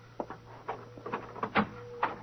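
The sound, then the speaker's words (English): A door being opened: a quick series of clunks and rattles from the latch and frame, fairly quiet, over a steady low hum with no one speaking. “the door, Muggavan.”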